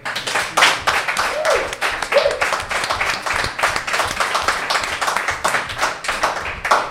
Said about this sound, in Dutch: publiek, dankjewel om zo voltallig aanwezig te zijn. Applausje aan jullie. Tientallen.